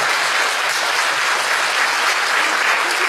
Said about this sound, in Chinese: 给点掌声给我们老马。